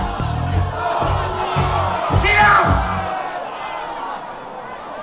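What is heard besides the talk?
crowd shouting and cheering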